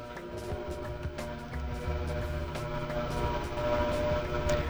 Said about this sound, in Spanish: uy, escucha, güey. Y te aseguro que están fumigando con pura agua, güey, porque eso es lo que hacen, güey.